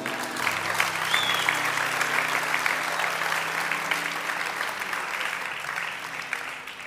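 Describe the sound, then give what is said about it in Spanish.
Sustained audience applause offered to Jesus, a dense steady wash of many hands clapping for about seven seconds, loud throughout with a low hum underneath and a slight fade near the end. “Alguien déle un aplauso a Jesús.”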